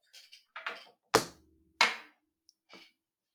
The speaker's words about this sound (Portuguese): Ponho já aqui assim a chave em cima da mesa. Espera aí, deixa-me procurar uma coisa que faça um barulho parecido com a minha chave.